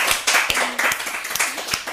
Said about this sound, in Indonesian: Makasih Tepuk tangannya keras dong.